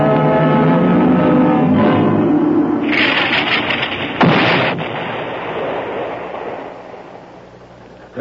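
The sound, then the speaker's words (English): A heavy artillery shell from their own side, fallen short, explodes with a deep, loud boom, followed by bursts of crackling debris and a long rumbling decay that slowly fades out. “was one of our shells, wasn't it, Lieutenant Ransom? Yeah, it fell short.”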